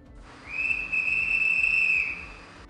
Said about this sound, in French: Un autre coup de sifflet retentit.